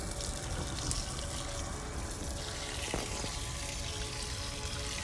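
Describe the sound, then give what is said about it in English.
Water pours and trickles steadily from watering plants, a continuous splashing stream with a brief louder splash near the middle, and no voices. “But I'm watering plants and I realize that we all need lots of water.”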